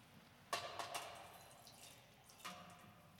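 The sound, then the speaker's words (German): Water is poured in short splashing bursts, a few quick pours close together, then another after a pause, with faint trickling between. Quiet, with no voices. “Gott kommt zu dir durch dieses Wasser. Jetzt kannst du was reingießen.”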